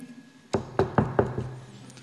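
Someone raps on a door four or five times in a quick, steady rhythm, the hard knocks loud over a faint background hum, the last one lighter.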